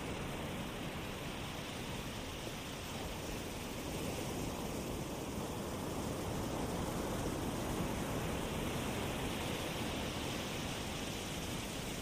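A steady, full wash of surf rolls onto a shore, with only gentle swells in loudness and no distinct breaks between waves. No voices are present.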